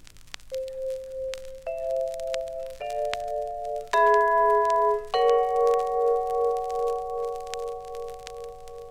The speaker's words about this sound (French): vibraphone.